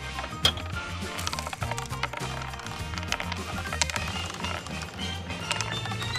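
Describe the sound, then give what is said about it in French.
A roulette-wheel jingle: rapid, irregular clicking ticks of a spinning wheel over a steady, busy musical backing, fairly loud and continuous for the whole stretch. “J'entends la, roulette tourner.”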